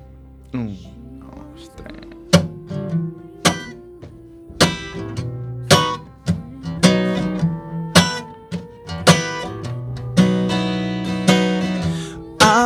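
An instrumental song intro plays, with sharp percussive hits landing at a steady pulse over sustained low tones and bright chords. It is fairly loud, with no singing yet.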